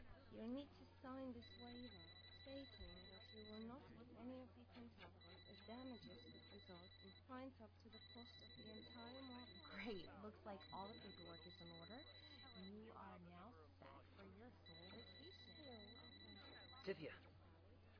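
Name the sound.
telephone ringing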